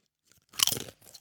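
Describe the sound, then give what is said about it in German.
Loud crunching of chips being bitten and chewed, a dense crackling burst followed by a softer second round of crunches, with no talking. “Oh, das knackt ja laut.”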